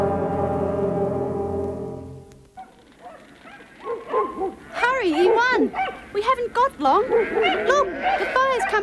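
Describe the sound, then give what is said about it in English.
A long, steady sheep bleat opens, followed by a flurry of wavering, overlapping bleats from several sheep, fairly loud, like a flock calling together. “Uh, they went down to move the sheep.”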